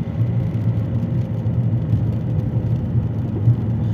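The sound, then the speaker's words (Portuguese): A steady car engine rumble drones continuously with a low, even hum and slight fluctuations, no voices present. “E de barulho de motor também, ok? O silêncio foi propositado.”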